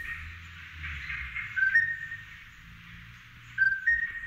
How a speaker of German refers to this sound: Das klingt wirklich wie ein Vogel. Mhm. Also wenn man so einen hören würde, ja, das... Aber ich denke, es ist ein Vogel. Gell? Ja. ja ist gut. auf jeden Fall einer von den äh, seltensten äh, Krottarten, die es gibt.